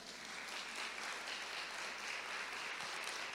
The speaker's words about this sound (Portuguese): Vamos aplaudir o Senhor, gente, pelo amor de Deus.